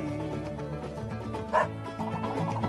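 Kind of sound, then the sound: animal, dog barking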